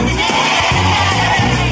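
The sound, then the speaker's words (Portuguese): Several voices together imitate a sheep's bleat, a loud wavering "baa" rising and falling for under two seconds. “Ele fez ovelhas que.”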